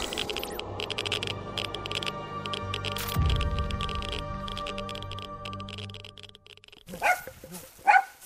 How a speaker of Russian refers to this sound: В соседнем дворе лает собака.